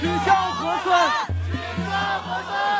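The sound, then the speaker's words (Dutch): A crowd of protesters shouts together at a street protest in central Beijing, China, near the Liangma river, with many police blocking the area, in loud, overlapping bursts of chanting and yelling, with a brief pause in the middle before the massed voices surge again. “Er staat heel veel politie die de boel blokkeert, maar ook een groep niet eens voor een hele grote groep demonstranten...”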